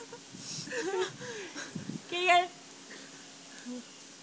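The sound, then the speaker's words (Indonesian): A coughing fit from a person who has had a flu since the day before: a run of strained, wheezy coughs and throaty gasps, some breaking into a laugh-like rasp, with one louder burst in the middle before it trails off into quieter breaths. “Aduh, jadi batuk semua.”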